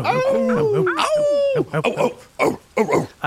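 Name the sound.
people imitating dogs barking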